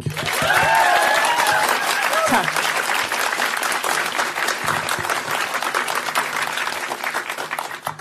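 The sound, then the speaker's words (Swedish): A crowd applauds warmly and steadily for several seconds, a dense wash of clapping, with a brief spoken voice near the start, welcoming panel guest a lawyer and comedian. “Ge en varm applåd till ….”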